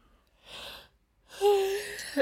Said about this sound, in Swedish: Ja, förlåt. Det var nej, inte... Får inte klippa bort den här gäspen för sådär, sådär är det när jag ja, ska...